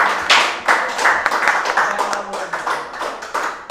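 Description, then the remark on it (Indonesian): A burst of hand clapping from a small group, many overlapping claps in a quick, steady patter, loud and sharp, with no voices over it. “Tepuk tangan.”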